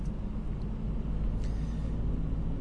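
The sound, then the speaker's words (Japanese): Steady low engine and road rumble fills the space, a continuous droning hum from inside a car driving to a business meeting, with no voices and only faint brief ticks above the drone. “えー、打ち合わせに向かっている中、車の中でですね”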